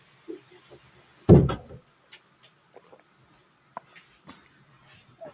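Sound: window being closed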